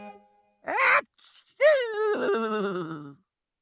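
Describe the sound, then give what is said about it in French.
A horse gives a short, breathy sneeze, then after a brief pause lets out a long, wavering whinny that slides downward and fades. It is fairly loud, with no talking. “C'était un tout petit éternuement, du moins pour un cheval.”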